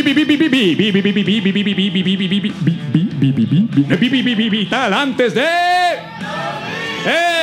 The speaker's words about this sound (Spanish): Es así se escucha el público bajo el agua hoy aquí en el Hub Escalante, en Barrio Escalante, en una noche lluviosa, pero no por ello menos cálida, divertida y electrificante.